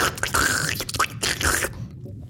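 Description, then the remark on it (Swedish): A voice imitates a sputtering, fart-like aquarium pump at the bottom of an aquarium, malfunctioning from an electrical fault: a few raspy, bubbling bursts with squeaky rising whistles, loud, then fading into quiet. “så blev det något elektriskt fel i pumpen längst ner i akvariet. lät pumpen.”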